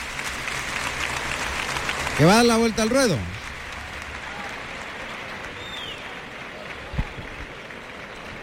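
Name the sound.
bullring crowd ovation applause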